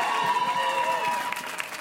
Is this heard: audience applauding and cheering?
yes